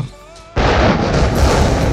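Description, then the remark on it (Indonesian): After a brief hushed moment with faint tones, a thunder sound effect bursts in suddenly and loudly, a broad crashing roar that keeps rumbling steadily to the end. “petir Lex. Petir.”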